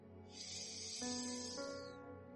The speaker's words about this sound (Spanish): Nos sentamos cómodamente cerramos los ojos y nos enfocamos en la respiración. La escuchamos, cómo sale el aire. Escuchamos esta respiración,